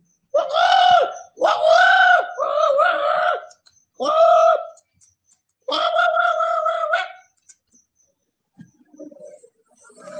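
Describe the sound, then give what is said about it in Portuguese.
A person imitates a monkey with a series of loud, whooping hoots and shrieks in rapid bursts, pausing briefly between them before fading to quiet. “E olhe como eu sei imitar um macaco.”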